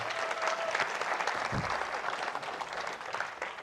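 An audience claps steadily for a guest being introduced, a dense wash of many hands that stays fairly even in loudness for several seconds without any talking over it.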